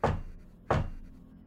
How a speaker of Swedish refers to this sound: Knackar igen.